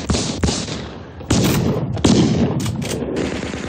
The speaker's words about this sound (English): Ruger busts the door down, backlit like an angel. She shoots out the whole gang in an incredible series.